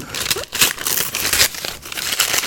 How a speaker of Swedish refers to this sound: Och det är även spelet vi ska tala om som ligger här i kartongen eller paketet som jag öppnar.